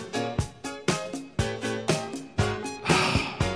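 A pop song plays with a soft male vocal over warm sustained chords and a steady, even beat, a punchy hit landing roughly every half second, clear, with no one talking over it.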